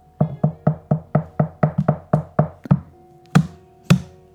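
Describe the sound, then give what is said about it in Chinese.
In a children's story, a character knocks on the front door of a neighbor's house: a rapid, steady run of about a dozen hollow knocks, followed after a brief pause by two louder, more spaced knocks. No one speaks. “天哪，本来快要睡着的熊熊，因为丫丫的敲门声而被吵醒了。”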